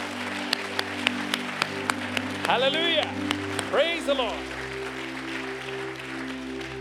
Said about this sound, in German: Give the Lord a mighty hand. Klatscht mal für den Herrn.